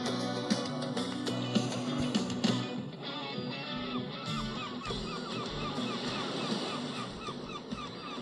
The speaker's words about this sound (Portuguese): a gaivota no fim, própria gaivota, a própria gaivota a dizer, então, em gaivotês, que eu percebo, dizer, epá, então mas vocês não se passa mais nada daqui isto?